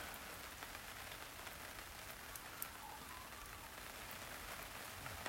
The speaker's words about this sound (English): Alrighty, let's listen to that rain.